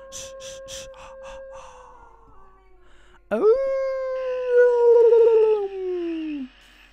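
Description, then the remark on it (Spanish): A wolf howls in long, steady, mournful tones: a softer, drawn-out howl with some pulsing noise over it, then a louder second howl that swoops up sharply and slowly sinks away. “Ahí está, miren. Lobonimus. Un lobo.”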